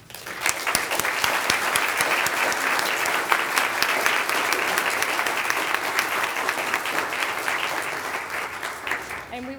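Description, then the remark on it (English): A church audience applauds its office volunteers with steady, sustained clapping from many hands, a dense and fairly loud wash of claps that holds for nearly ten seconds before tapering off at the very end. “Please join me in a round of applause for our volunteers.”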